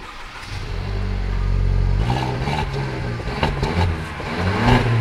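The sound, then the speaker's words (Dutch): The engine of a light blue metallic Mercedes car turns over and catches, then revs up with a deep, throaty roar that swells and dips a few times, loud, with no one speaking. “Ik slinger hem aan voor je.”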